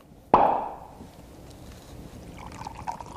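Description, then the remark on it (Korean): A champagne bottle pops open with one sharp crack, followed by a fizzing hiss that fades, then a softer, steady pour of bubbly liquid. No one speaks. “샴페인 따고 쫙 따르는 소리입니다.”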